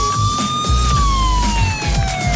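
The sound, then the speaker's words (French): A loud, continuous ambulance siren tone, played as a jingle, glides slowly downward in pitch over a low, rumbling engine-like background, filling the whole short stretch with no talking. “Voilà, l'ambulance, euh, l'ambulance pour aller à la moto aujourd'hui.”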